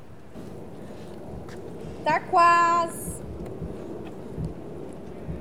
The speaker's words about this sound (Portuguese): eu fiz este de manhã, ele já está aqui um bocado, vá, ressecar ao ar, né? Aquilo que nós fazemos é pôr outra vez na nossa trituradora, bater um bocadinho com um bocadinho de água de nada e ele fica maravilhoso, cremoso para ir para a mesa, incrível.